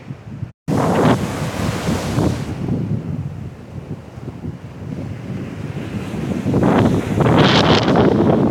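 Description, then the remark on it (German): Sea waves wash onto a beach on a sunny day in broad, hissing surges, swelling louder toward the end, with gusty wind buffeting the microphone throughout and no voices. “Lassen uns die Sonne ins Gesicht scheinen und ihr hört auch schon das Meer.”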